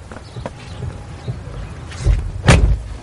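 A car door opens with a muffled clunk, followed by a sharper bang as it shuts close by, over a low idling rumble and faint shuffling movement.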